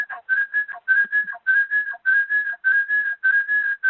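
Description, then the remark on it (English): A shrill, steady feedback whistle rings out in rapid repeating bursts, looping over and over like an echo caught on the line, fairly loud with no one speaking. “We're having a little echo here.”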